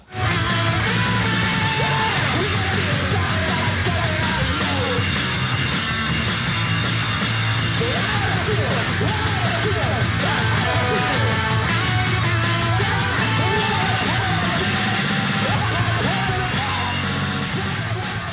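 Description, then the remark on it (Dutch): A chaotic punk band blasts away with harsh, distorted guitars and pounding drums while a voice yells over the din, the noise staying loud and dense from start to finish. “Die uh, … die je noemt, die klinkt zo.”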